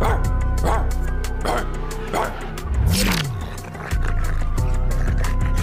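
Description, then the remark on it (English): A dog barks repeatedly in quick, sharp bursts, mixed with higher-pitched yips and a brief whining cry, all over a steady low background hum. “OJ just turned back into a dog.”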